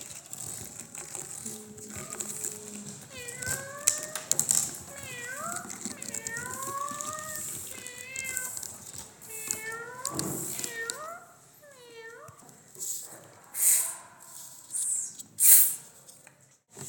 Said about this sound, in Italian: Trovò un gatto impacciato che graffiando il tronco di un albero tentava di arrampicarsi su in alto.